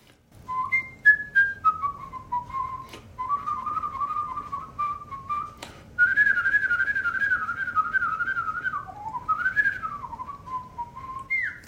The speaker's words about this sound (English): it was a piece I actually played in uh, in the World Championship of Whistling, and it's uh, it's usually played on the violin. It's called Csárdás by Vittorio Monti. I'm sure you've heard it.